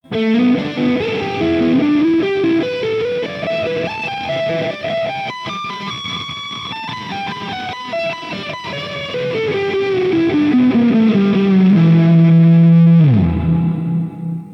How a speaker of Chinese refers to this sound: 哎，是不是就听出问题来了？在箱头失真音色的情况下，混响放在箱头之前出来的声儿，那就整个是糊糊糟糟的。那么这个声儿呢，基本上就没有办法用了。